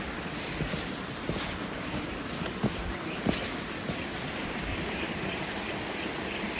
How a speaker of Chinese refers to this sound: 好多小小小瀑布，小小瀑布。